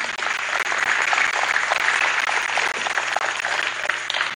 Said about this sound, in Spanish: Sí, dale un aplauso al Señor, dáselo, dáselo, dáselo.